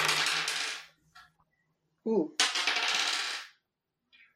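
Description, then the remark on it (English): Dice clatter and rattle across a hard tabletop in two loud bursts of rolling as players each roll two dice for initiative before combat in a tabletop game, with a short exclaimed voice between them and a faint click near the end. “So I want everyone to roll two dice and add the numbers together Whoa.”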